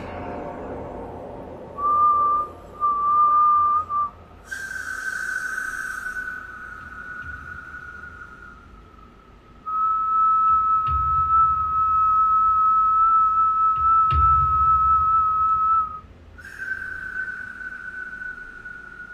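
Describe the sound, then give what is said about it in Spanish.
A long, eerie whistle sounds in several sustained, steady-pitched notes that seem very far away, each held for seconds with short breaks, over a low background rumble with no one talking. “Te lo juro que es un silbido, un sonido que hiela la piel.”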